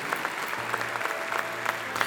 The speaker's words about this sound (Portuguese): Essa é para aplaudir, como diz o outro.